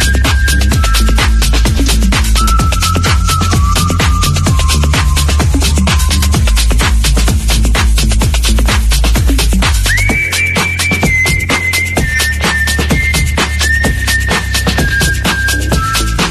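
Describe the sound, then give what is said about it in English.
A shrill whistle sounds in long held notes that step between pitches, riding over loud, busy rhythmic music with a steady thumping beat; no one speaks. “Anyone fancy a whistle? Here we go.”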